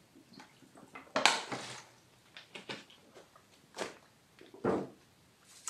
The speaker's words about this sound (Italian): Bevo un goccino d'acqua e poi proseguiamo.